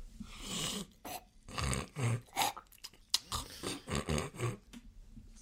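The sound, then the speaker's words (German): A voice imitates a baby's grunting sleep noises: a string of irregular throaty grunts, snuffles and breathy whimpers, about a dozen short bursts with no words. “dass ich echt gedacht das geht so nicht dass ein Baby so viel Geräusche macht.”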